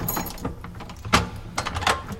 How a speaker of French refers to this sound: J'ouvre la porte.